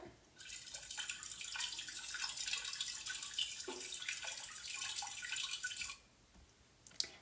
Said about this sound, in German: An einem angenehmen warmen Tag laufen Vera und Ella durch die Stadt Stockholm und hören dort einen Springbrunnen